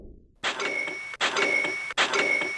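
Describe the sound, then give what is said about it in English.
A bright cash-register cha-ching Shopify sale notification chimes three times in quick succession, each ring clear with a shimmering metallic tone, and no talking underneath. “That is the sound of another sale on Shopify”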